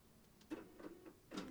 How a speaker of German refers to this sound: Der Drucker ist angegangen. Oh ja, ist, vielleicht druckt jemand.